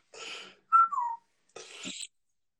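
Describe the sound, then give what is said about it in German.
A handheld bird-distress predator call is blown in three quick bursts: a raspy screech, a squealing tone that slides downward, then another harsh shriek. No one talks over it. “ich muss mal meine, meine Vogelklage, die habe ich ja ganz neu rausgebracht”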